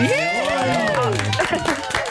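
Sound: applause sound effect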